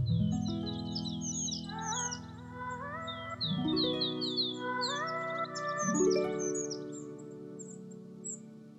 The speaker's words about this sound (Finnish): Metsän ja lintujen äänet Yle lisenssillä CC-BY.